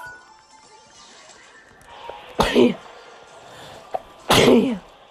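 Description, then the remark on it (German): Two loud sneezes about two seconds apart, each a sharp explosive burst with a brief noisy tail, over a quiet background with a small click between them. “Ah, erstmal niesen.”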